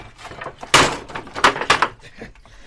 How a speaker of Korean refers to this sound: 자, 두 왕자님과 그 일행이 모두 안으로 들어가셨다. 창고문을 닫아라. 예.